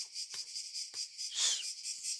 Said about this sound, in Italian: basta, queste cicale